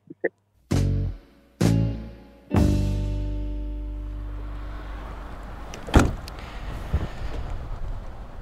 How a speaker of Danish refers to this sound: Det var øh, lyden af min bagsmæk. I baggrunden har vi blæsten over Kalvebod Brygge.